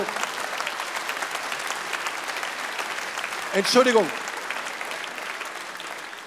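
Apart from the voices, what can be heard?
audience applause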